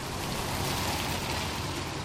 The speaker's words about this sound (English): It's a rainy Saturday morning